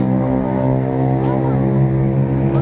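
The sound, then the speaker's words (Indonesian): A car engine roars loudly and steadily, its rich droning hum holding high revs as the vehicle speeds along, with faint tire noise underneath. “Jangan cok akeh ngebut-ngebut nang ngene cok.”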